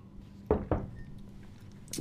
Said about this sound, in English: I'm gonna take a little drink of water.